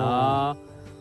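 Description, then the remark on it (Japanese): A steady, buzzing cicada-like insect drone holds for about half a second, then abruptly stops, leaving quiet background. No one speaks. “セミみたいな音流れてるんですかあああの虫の声なんかこれ入ってます、入ってるんです、ね、入ってる入ってる、えー、結構虫の声とかカエルの鳴き声とかよく入りますね”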